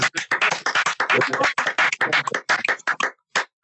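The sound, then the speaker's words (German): A short burst of applause: several people clapping in a dense, irregular patter of sharp, bright claps that stays loud and steady, then thins out near the end. “Applaus seit langem. Ja, bravo.”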